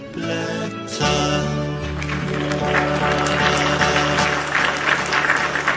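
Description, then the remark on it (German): Dense, steady clapping starts after a brief opening and continues throughout, mixed with a sustained tonal musical backdrop at a fairly loud, even level. “Dieser einer, der klatscht.”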